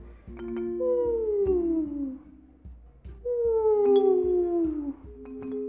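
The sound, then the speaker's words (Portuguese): A dozing dog lets out two long, drowsy whining groans that slide downward in pitch, fairly loud, with a short pause between them and faint clicks in the background. “cima de um cachorro cochilando.”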